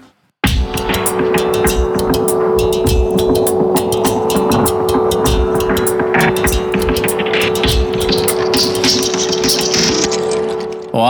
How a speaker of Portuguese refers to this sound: você viu, hein? Agora tem vinheta de transição, cara.